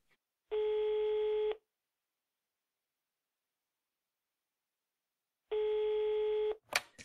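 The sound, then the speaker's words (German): Two long telephone ringback tones, each about a second, separated by a pause of several seconds, as a phone call is placed, followed by a brief click or pickup noise at the end. Clear and steady, with no talking. “Ja, wir rufen ihn an und dann hören wir uns gleich wieder, wenn wir reingehen mit Joshua Holtby.”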